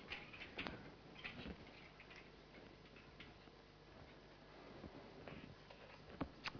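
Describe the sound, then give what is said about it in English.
A clock ticks quietly and steadily, its soft clicks repeating at a regular pace over a faint background hiss, with no one speaking. “All right as you can see here, we have a normal clock, which you understand, I guess.”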